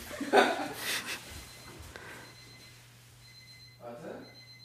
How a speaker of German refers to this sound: Kann es sein, dass dein Wecker klingelt? Mein Wecker klingelt.